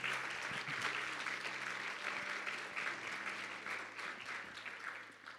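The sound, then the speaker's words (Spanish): Steady, sustained applause from an audience for the Lord, a dense crackle of many hands clapping at an even loudness throughout, with no talking over it. “Dale un fuerte aplauso al Señor si tú lo crees.”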